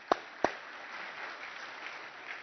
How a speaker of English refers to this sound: you want to clap for that? Yeah, we can clap. That's awesome.